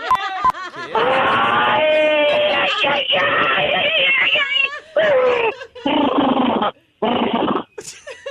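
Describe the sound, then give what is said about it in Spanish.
A person vocally imitates a giraffe giving birth, making loud, strained wavering wails and squeals in several long bursts separated by brief pauses, with a few gasping breaths between. “A ver, necesito escuchar cómo sonaría una jirafa pariendo.”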